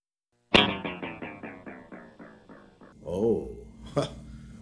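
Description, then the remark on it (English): A sharp plucked note repeats as about ten evenly spaced, fading echoes, then the repeats warble and swoop in pitch as a tape delay's speed is changed and its motor winds down gradually, ending with another bright hit. “okay okay that was that was cool changing the speed that's what it would do is the motor wound down it doesn't change speeds immediately so you actually do get that pitch change the doppler thing”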